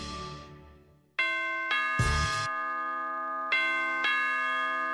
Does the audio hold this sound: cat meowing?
no